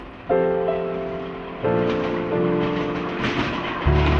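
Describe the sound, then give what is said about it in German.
A railway train moves along the rails with a steady rolling rumble, overlaid by sustained horn-like chords that shift pitch several times. The sound stays fairly loud, with no voices. “Vorsicht! bei der Abfahrt des Zuges. Eisenbahn.”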